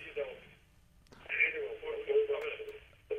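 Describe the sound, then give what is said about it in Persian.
A caller's television plays in the background over a telephone line, its thin, band-limited voices and programme sound running continuously, with a brief dip before the sound resumes. “باز میخوام صدای تلویزیونتون میشه کم کنید یا کامپیوترتون”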